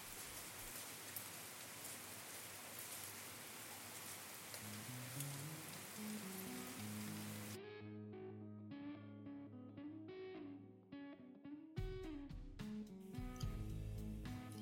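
Steady, dense rain outside a window in Saint Petersburg in midsummer hisses for about seven seconds, then cuts out abruptly, leaving a gentle tonal music intro that had already begun rising beneath it.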